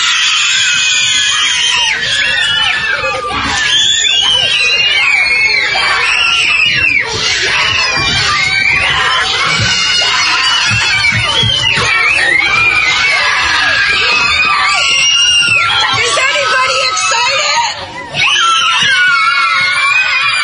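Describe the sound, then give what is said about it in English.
A crowd of children screams and cheers continuously at high pitch, loud, with overlapping shrieks and excited yells sustained for the whole stretch, celebrating that from the next day they no longer have to wear masks. “listen to these children as they taste freedom. Starting tomorrow, we don't have to wear masks anymore!”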